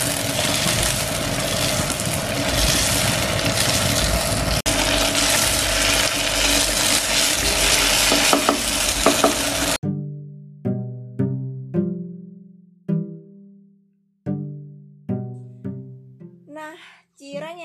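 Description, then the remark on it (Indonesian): Cireng dough frying in oil over low heat gives a steady, dense sizzle and crackle for about ten seconds, then cuts off and gives way to a sequence of gently plucked, decaying musical notes. “Nah, kemudian langsung menuju step yang selanjutnya yaitu digoreng. Pakai api kecil aja ya biar gak cepet gosong.”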